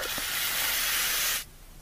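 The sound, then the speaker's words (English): Garlic sizzles loudly in a hot pan, a steady bright crackling hiss that holds for over a second and then cuts off abruptly, leaving quiet room tone. “Ooh, garlic. Mmm, so soothing. I would really eat in this man forest. Look at this. Oh, the sizzle, Lord.”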